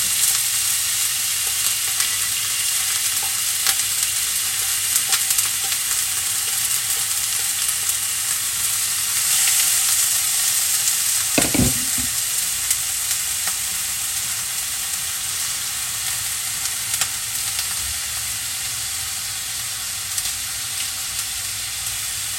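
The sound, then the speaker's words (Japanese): Sesame oil sizzles steadily in a hot pan, with scattered crackles and pops spattering throughout and one brief low knock midway; no voices. “ごま油って普通の油より跳ねますよね”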